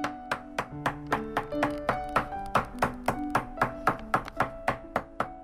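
A steady run of sharp hammer taps, roughly three per second, as a shoe is worked on, with soft melodic background music underneath and no one speaking.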